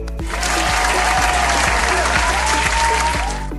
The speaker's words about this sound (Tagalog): Oh, yeah! Pumalakpak nga ng malakas kung talagang handa na kayo.